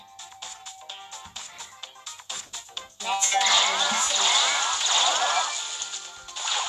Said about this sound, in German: Ist zu laut. Ich hoffe, ich bin mir nicht sicher, wenn ich den Klingelton leiser mache, ob man mich dann äh, den Ton leiser mache, ob man mich dann auch leiser hört oder